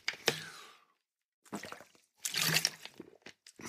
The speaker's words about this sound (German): Na, mich verschluckt. Ähm, Schluck Wasser. Vielleicht besser.